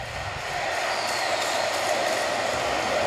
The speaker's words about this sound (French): C'est vraiment le cri du cœur de, des 40 000 supporters qui se Écoute, écoute, écoute, écoute,